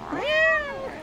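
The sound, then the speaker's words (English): A male cat named Mr. Big Stuff lets out a single drawn-out yowl at kittens, rising and then sliding down, loud, with no talking over it. “He's yowling at the kittens.”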